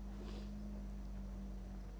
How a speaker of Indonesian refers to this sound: Bentar mau closing tapi ada suara mobil, biar lewat dulu mobilnya.